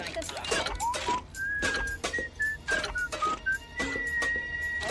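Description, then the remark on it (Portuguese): A radio dial sweeps rapidly through stations: bursts of static and brief broadcast fragments alternate with thin whistling tones that hop up and down in pitch, with a steady whine near the end. “Oh, you're going too slow. Let me take the wheel. It's too fast. How could you even tell what's on?”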